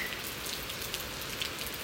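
Steady rain patters without a break, a dense hiss of drops with faint, scattered higher ticks of individual drops landing on a surface. No voices are heard.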